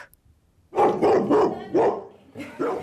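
A dog barks, a quick run of about five or six loud, tonal barks in uneven rhythm, with no one talking over them.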